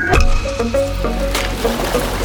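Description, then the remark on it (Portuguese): Water sloshes and laps, with a paddle dipping and splashing in uneven strokes, while a faint steady tone hums underneath. “No embalar das águas.”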